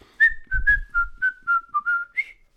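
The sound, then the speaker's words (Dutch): Someone whistles the HEMA department store jingle, a short, catchy tune of about eight quick notes in a bouncy rhythm, clear, with a soft breathy thump near the start and no talking. “Maar eh, dat willen ze niet, want iedereen kent, ja, behalve ik dus, die kent dat HEMA-fluitje.”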